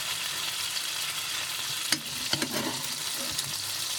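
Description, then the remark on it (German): Steady sizzling of a beef fillet frying in a pan, with a few brief clinks and splattering bursts as the pan juices are spooned over it to glaze it; no voices. “übergieße das jetzt hier nochmal so ein bisschen, einfach mit diesem, mit diesem Zeug, was drin ist.”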